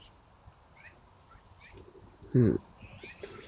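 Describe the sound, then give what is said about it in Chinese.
Faint, scattered bird chirps sound softly over a quiet outdoor background in Nanhanhe Park, Beijing, heard from a hammock, with a short spoken murmur from a person cutting in about halfway through. “现在是在吊床上观鸟，在我的吊床上听着鸟鸣，然后再观鸟哦。”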